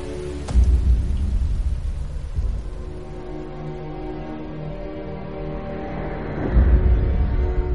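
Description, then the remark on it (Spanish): A rainstorm at night: a steady, dense hiss of falling rain throughout, with deep low rumbles of thunder swelling near the start and again toward the end. No one speaks. “Vanessa está bajo la lluvia.”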